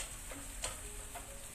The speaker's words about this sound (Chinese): 好，那它慢慢的煎